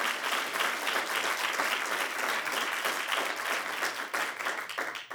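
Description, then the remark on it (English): The Sandals Church crowd claps steadily and loudly for about five seconds, dense overlapping applause with scattered cheers mixed in, holding an even level before easing slightly at the end, cheering for a man who stood to say he believes in Jesus. “Come on, clap and cheer for him.”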